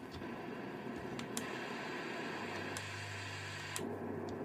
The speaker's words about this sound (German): Dann habe ich hier so ein Rauschen, hat man noch dabei vom Wind.